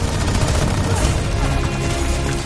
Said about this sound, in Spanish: Los alemanes disparan un cañón. Diana golpea el proyectil con su escudo y este explota a varios metros de ella.